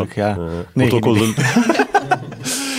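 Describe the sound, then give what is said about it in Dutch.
A kookaburra's laughing call: loud, rhythmic cackling bursts that rise and tumble in quick harmonic hoots, continuing for a few seconds without pause. “Uh, het is een koekapura.”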